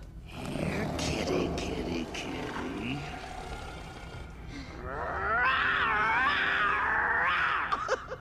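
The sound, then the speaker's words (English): A loud, busy soundtrack of an animated movie chase scene in which hyenas chase two lion cubs, with deep roars and growls up front, giving way to high, wavering animal cries and yelps over rumbling music near the end. “So, for this game, you need to guess which movie the chase scene you're hearing is from.”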